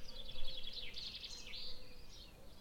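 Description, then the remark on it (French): Birds sing in an outdoor garden during a hypnosis session, their high chirping phrases rising and falling continuously over soft background ambience, fairly quiet. “Vous entendez ma voix et au-delà vous entendez les sons extérieurs car nous sommes dans le jardin dont je vous avais parlé, et cette séance sera accompagnée par les oiseaux, par les quelques mouches ou les abeilles qui volent autour.”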